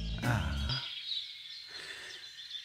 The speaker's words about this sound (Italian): No, facciamo finire il temporale perché mi fanno pena questi uccellini che devono cantare sotto il temporale. Togliamo il vento, solo la natura.